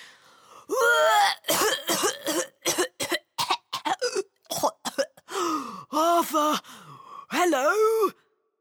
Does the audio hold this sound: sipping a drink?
no